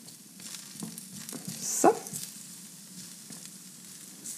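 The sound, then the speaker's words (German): Oiled vegetable pieces sizzle steadily as they brown in a hot pan on heat setting 4 of 6, a constant crackling hiss with a brief louder clatter near the middle, like food being stirred or shifted; no one speaks. “Genau, das soll jetzt ein bisschen Farbe kriegen, ein bisschen anbrennen. Dadurch kriegt es Geschmack.”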